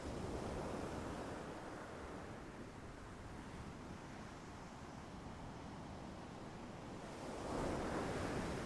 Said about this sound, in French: que vous observez toutes ces choses, que vous entendez ce bruit rassurant de la mer, des vagues.